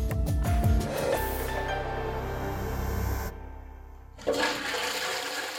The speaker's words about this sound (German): Das Geräusch kennt jeder. Zumindest in den Regionen, wo die Menschen die Möglichkeit haben, eine Toilette zu benutzen und danach den Spülungsmechanismus der Sanitäranlage in Gang zu setzen.